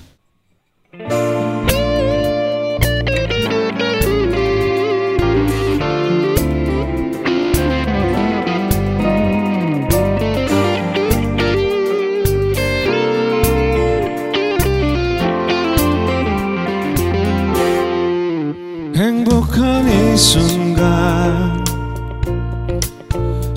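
A live band plays a loud, full song with distorted electric guitar and steady rhythm, kicking in after a brief silence and running continuously close-up with no talking.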